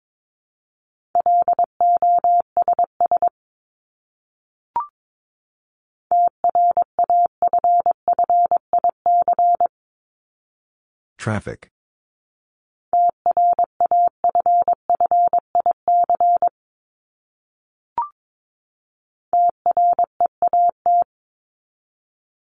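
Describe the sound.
Morse code tones at 22 words per minute, sending practice words from a list of the 1251st to 1500th most common words: a steady mid-pitched beep keyed into rapid dots and dashes, sent in four bursts separated by short pauses, with a brief click and one spoken word between them.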